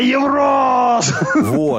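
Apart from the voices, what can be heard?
played scream sound effect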